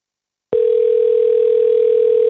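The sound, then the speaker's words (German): After a brief silence, a single steady telephone ringing tone sounds, loud and clear, holding one unbroken pitch for about two seconds with no voices, as a phone call is placed to a former journalist. “Und fast 20 Jahre später habe ich für diese Folge nochmal mit ihr dazu telefoniert.”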